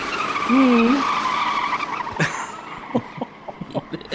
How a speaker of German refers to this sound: Du meinst gerade, die Schöne hat sich mit dem Biest ins Auto gesetzt und äh, gibt jetzt richtig Vollgas, ja? Ja, also die, Ja. die gehen jetzt richtig ab.